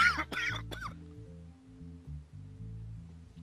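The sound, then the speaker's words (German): Three harsh, raspy coughs burst out in quick succession at the start, then stop, leaving only a steady low droning background. “Jesus Christ, ich hatte gerade voll den Hustenanfall.”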